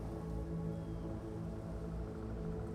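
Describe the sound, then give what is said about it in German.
A steady, soft rushing of wind through the trees of a large forest, continuous and fairly quiet with a low, even rumble underneath and no voices. “Ich liebe dieses Geräusch. Der Wind, der durch die ganzen Bäume weht.”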